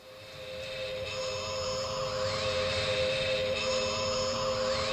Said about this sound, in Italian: Questo era il rumore di, di un'astronave spaziale eh, su un... Um, di un famoso telefilm degli anni 70, eh, UFO, dove c'era appunto una base lunare.